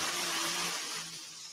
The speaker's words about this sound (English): There's a tractor coming to line right here.